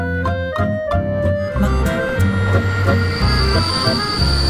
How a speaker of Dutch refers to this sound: Als mijn trein aankomt, sneeuwt het zachtjes op het kleine verlaten station.